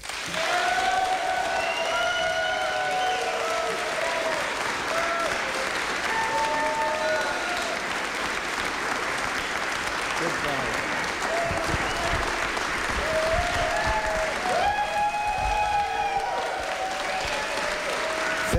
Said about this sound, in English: What's wrong with you people? Don't you know you're clapping for one of the 50 most wanted men in the world?